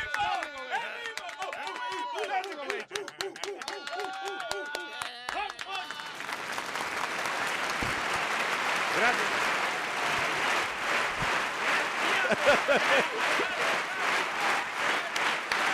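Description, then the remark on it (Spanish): Several voices talk over each other, then a burst of sustained, dense applause from a small group, clapping for the gentlemen who have just performed a song, takes over, loud, with bits of chatter mixed in. “Estamos aplaudiéndole al señor aquí, a los caballeros.”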